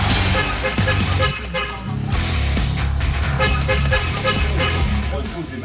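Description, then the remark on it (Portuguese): Loud, overlapping car horns honk continuously in busy street traffic in the streets of São Carlos, from the Parque Sabará area, sustained blaring tones layered over a dense roar of engines and road noise. “O pessoal tá buzinando no Tá trânsito, mandando né?”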